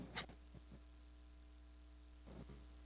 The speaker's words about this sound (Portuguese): Estamos com um pequeno, uma pequena interferência na internet. Tem o …, o áudio dele está um pouco picotado.